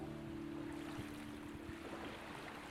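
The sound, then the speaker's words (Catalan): A steady, soft wash of sea waves murmuring against a beach of wide, fine white sand, continuous and even throughout, with a faint low hum underneath and no voices. “Escoltes la seva remor”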